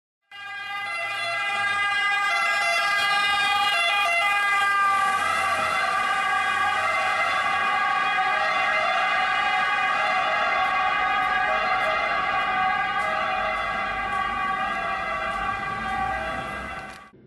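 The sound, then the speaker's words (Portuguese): An ambulance siren wails loud for the whole stretch as it passes by, a steady piercing tone over faint road rumble, easing slightly toward the end. No one speaks. “Quando essa ambulância tá, começa a se aproximar, você tem a sensação de que o som está ficando cada vez mais agudo.”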